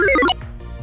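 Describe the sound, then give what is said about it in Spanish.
A bright, quick run of chiming electronic tones, a short cheerful jingle from an audio game marking tutorial completion, ending abruptly after about a third of a second, followed by quiet low background hum. “Y ahí termina, este es el sonido de que termina, digamos, la parte del tutorial en esta parte, eh, en, esta, en este lugar.”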